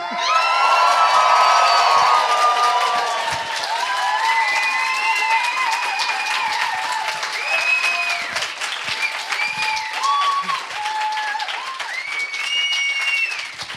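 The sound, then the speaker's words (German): A crowd of about 250 people at the DNX event in the Beta-Haus in Berlin claps and cheers for about fourteen seconds, dense steady applause mixed with whoops and high-pitched shouts that rise and fall, loudest at the start, with no speech. “Ich bin hier im Beta-Haus und bin hier mit gefühlten 250, weiteren Leuten. Mach mal ein bisschen, mach mal ein bisschen Alarm.”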